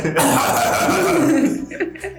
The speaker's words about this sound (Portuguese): Eu quero tossir. Fica à vontade. Ela quer tossir aí, estourar o microfone. Aí, então, cofe, cofe, cofe. É ela.